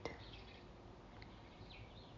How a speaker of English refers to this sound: And I give God praise on today as I listen to the song of the free bird.